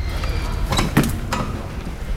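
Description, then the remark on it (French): A few sharp knocks and thuds of doors banging shut, mixed with creaking wooden floorboards over a low rumble, spread across a couple of seconds at moderate volume, in the grand vestibule of the palace of the president of the Assembly. “Soudain, les portes claquent, les planchers crissent.”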